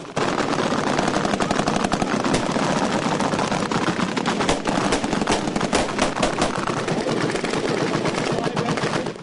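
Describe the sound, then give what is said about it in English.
Sustained automatic gunfire with live ammunition during military training, dense bursts of sharp cracks overlapping in rapid succession for the whole stretch, loud and continuous with occasional heavier reports standing out. “And to hone it, they switched in training from blanks to live ammunition.”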